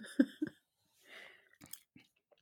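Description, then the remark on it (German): Crunchy chewing of hard, stale bread several days old, with a few sharp bites and grinding crunches in quick succession, then quieter chewing sounds trailing off. No one speaks. “Oh, Entschuldigung, das Brot ist schon ganz schön hart.”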